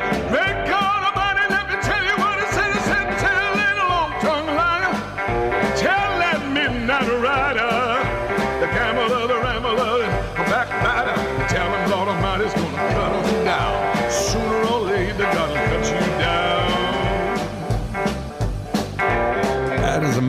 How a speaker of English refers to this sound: And that's uh, some of that fire and brimstone type of music he used to do back in the old days.